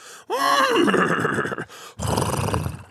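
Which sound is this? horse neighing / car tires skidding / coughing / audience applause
horse neighing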